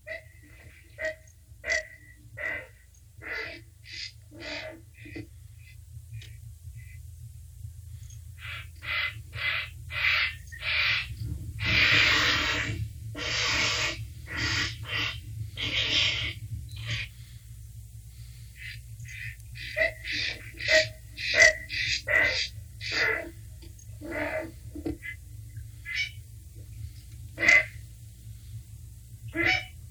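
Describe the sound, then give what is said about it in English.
A raucous colony of herons calling over and over, harsh croaks and squawks overlapping from many birds at once, loud, with a steady low rumble underneath and no talking. “Let me just play you a sound bite of what these birds sound like before I do, before I give you the description.”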